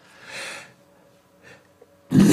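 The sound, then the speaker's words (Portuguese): A single loud sneeze: a couple of breathy inhales build up, then a sudden explosive burst at the end. No talking. “O espirro não faz parte do texto.”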